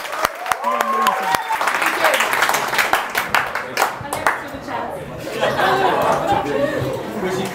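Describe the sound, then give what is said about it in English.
An audience breaks into clapping and cheering after an arm wrestling match, starting with a few sharp claps that swell into steady applause mixed with lively crowd chatter and scattered laughter. “Let's clap it up.”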